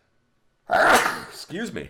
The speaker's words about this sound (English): Bless you. Thank you.